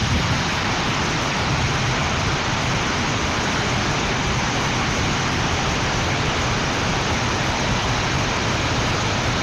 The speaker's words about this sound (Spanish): También eh, nos enviaban este audio. Muchos granizos eh, en la herradura, nos dicen. Vamos a escuchar.